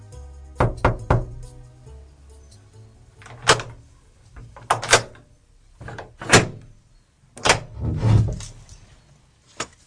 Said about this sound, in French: Nasreddin Hodja alla frapper à la porte de son voisin.